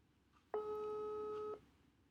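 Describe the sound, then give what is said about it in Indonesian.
A single steady telephone tone sounds for about one second, a call-progress beep while phoning a guest, before the line starts ringing, clear over a quiet background with no talking. “Belum. Belum. Masih calling kok.”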